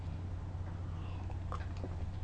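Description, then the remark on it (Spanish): A couple of quick sips of freshly brewed, bitter, unsweetened hot coffee, soft slurping mouth sounds over a steady low hum, with no talking. “Después de este sorbito, un buchito largo para pues comenzar el día”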